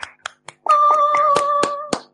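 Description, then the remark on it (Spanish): About eight sharp, scattered hand claps at an uneven pace, given as applause for a grilled cheese sandwich, most of them sounding over a steady, fairly high-pitched tone that holds for over a second before fading out. No voices. “Un aplauso para el grilled cheese.”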